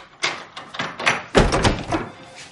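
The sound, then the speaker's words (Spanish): A man swings a door shut with a solid thump, followed by a few clicking, rattling knocks as he locks it with a key, no voices present. “Él cierra la puerta con llave.”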